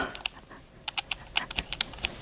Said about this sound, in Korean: 물줄기처럼 사방으로 튀는 문장을 끌어안고 혜수는 열 개의 손가락으로 키보드를 두드리기 시작했다.